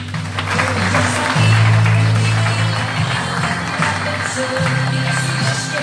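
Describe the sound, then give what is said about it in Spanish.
Loud, sustained applause from a crowd, a dense steady clatter of clapping lasting several seconds, with cheering or shouting voices mixed in underneath. “Fuertes aplausos.”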